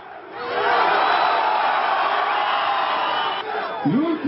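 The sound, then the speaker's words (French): A large crowd of Recep Tayyip Erdogan's party supporters in Turkey cheers and acclaims his victory in a loud, sustained roar that swells after a moment and holds steady, with individual shouts and whoops rising near the end. “acclamé par les militants de son parti, Recep Tayyip Erdogan savoure sa victoire.”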